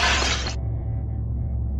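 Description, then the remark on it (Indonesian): A mirror's glass shatters in an apartment living room in one loud crash lasting about half a second, leaving shards scattered on the floor, then cuts off and leaves a low, steady rumbling hum underneath. “Di ruang tamu, Bram terheran-heran melihat pecahan kaca cermin berserakan di lantai.”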